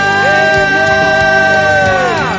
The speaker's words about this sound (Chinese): 我们再次拍掌，将荣耀都归给我们的神。哈利路亚！哈利路亚！哈利路亚！得胜的欢呼！哈利路亚！